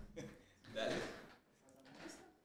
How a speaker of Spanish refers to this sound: Para los que solo están escuchando, estamos cambiando la silla de mes. Problemas técnicos aquí de producción.